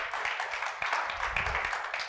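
round of applause

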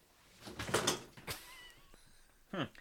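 cat meowing

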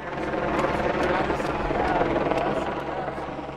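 helicopter flying overhead

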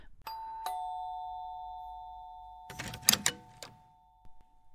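doorbell ringing

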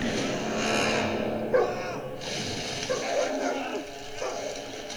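dog barking and yipping

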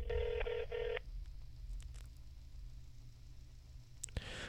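telephone keypad dialing tones

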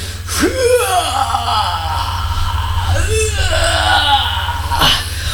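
person groaning

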